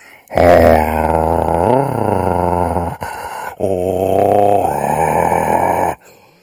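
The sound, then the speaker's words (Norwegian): A person growls like the lions in the lions' den from the story of Daniel, in two long, loud, rumbling bursts, each about two and a half seconds, separated by a brief pause, with no other talking. “Og Daniel kikket ned i løvehulen.”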